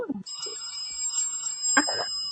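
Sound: phone ringing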